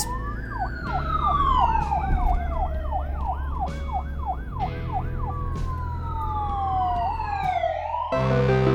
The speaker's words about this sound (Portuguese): Fica logo ali, naquela esquina, próximo daquele semáforo. É um cruzamento bem movimentado. Muitas sirenes começam a passar por ele. Parece que a cidade está em perigo novamente.